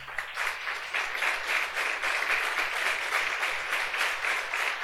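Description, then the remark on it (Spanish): An audience applauds the Lord steadily, a dense wash of many hands clapping at an even, fairly loud level for several seconds, with no voices standing out. “Dele fuertes aplausos al Señor.”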